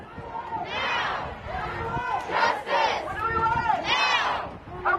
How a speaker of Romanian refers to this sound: Dar le-ați auzit cu siguranță scandările, nu cer chiar nimic? Dreptate! Și eu vreau dreptate.